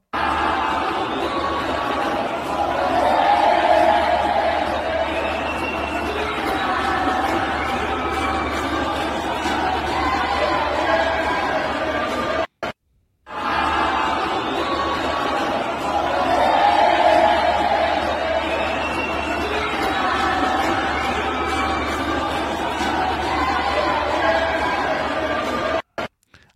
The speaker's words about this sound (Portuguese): na véspera do Bolsonaro ser julgado no TSE, ele teve que ouvir o Lula lá e teve que ouvir gritos de inelegível.